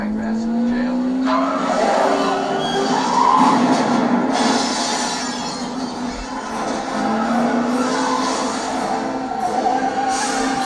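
A loud, continuous car chase: roaring engines rise and fall in pitch as vehicles accelerate, with squealing, skidding tires cutting through the dense, busy noise.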